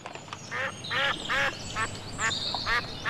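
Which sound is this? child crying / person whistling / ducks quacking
ducks quacking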